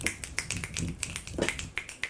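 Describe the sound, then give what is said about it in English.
A quick round of finger snaps, several people snapping in loose, overlapping succession, crisp, with no talking over them. “Can I get around finger snaps for the Bagingi?”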